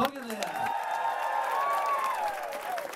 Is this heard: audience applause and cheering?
yes